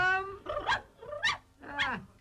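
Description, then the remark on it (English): A voice imitates a dog , a child glued into a dog costume, letting out three drawn-out, yelping barks with growly edges, evenly spaced. “Ah, now then, where's my dog?”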